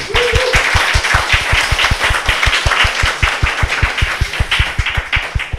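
A steady round of applause: many hands clapping in a dense, quick, even rhythm that holds at a constant loud level throughout, with no voices over it.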